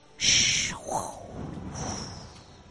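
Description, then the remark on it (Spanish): A voice imitates strong wind: a sharp, breathy hiss bursts out, then drops into a low, hooting whoo and a softer, fading whistle, all close and fairly loud, with no words. “Y sus oídos se pusieron atentos a ese ruido del viento fuerte que venía.”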